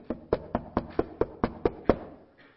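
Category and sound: impact, knocking on a door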